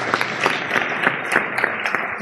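Steady audience applause, a dense wash of many hands clapping at a fairly even level with scattered sharper claps standing out, continuing throughout the short stretch.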